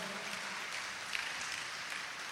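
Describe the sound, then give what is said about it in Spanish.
An audience applauds the Lord in an afternoon church service, a dense, steady wash of many hands clapping at an even level for a couple of seconds, with no voices standing out. “¡Denle el aplauso al Señor esta tarde, por favor.”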